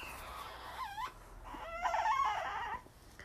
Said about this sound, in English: That's my little newborn. Hold on something, he's upset.